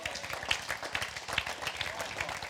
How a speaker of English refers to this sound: And I'm not doing this for hand claps.